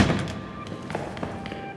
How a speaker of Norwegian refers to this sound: I det samme jeg kom inn i den halvmørke inngangshallen, hørte jeg kjappe fottrinn i trappa.